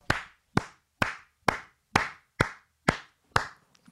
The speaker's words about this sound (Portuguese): Só palmas. Só, só.